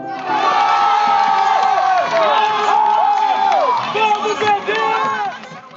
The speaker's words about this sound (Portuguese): O grito da torcida lembrava um estádio de futebol lotado, acompanhando uma final de campeonato. Mas os fãs de esporte eletrônico estavam ali presentes na Arena Carioca 1, no Parque Olímpico do Rio de Janeiro, para assistir ao maior evento